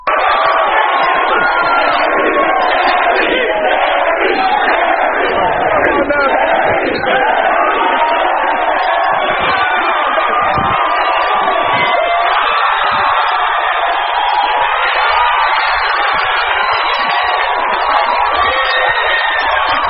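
A studio audience at an American TV talk show cheers and shouts "hit" loudly and without a break while guests fight on stage and security steps in. A dense roar of many voices, with scattered whoops and yells rising above it for the whole stretch.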